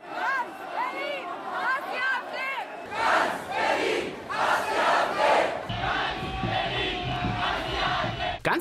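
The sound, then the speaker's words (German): A large protest crowd at a demonstration against the AfD in Berlin chants and shouts loudly in rhythmic bursts, many voices blending into a dense, continuous roar with some individual voices standing out near the start. “Die Mehrheit der Demonstranten waren laut, aber friedlich und zeigten der Welt, was sie von der AfD und ihren Anhängern hält.”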